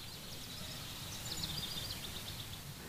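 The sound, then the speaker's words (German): Faint chirps of small birds flying from tree to tree among chestnut trees flutter high over a low, steady outdoor rumble, scattered through the moment without any voices. “Kleine Vögel fliegen zwitschernd von Baum zu Baum.”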